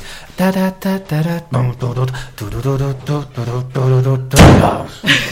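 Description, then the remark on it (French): A door is shut with a single solid thud near the end, preceded by a run of voiced, sing-song vocal sounds that continue briefly afterward. “je crois que tu as envie de fermer la porte”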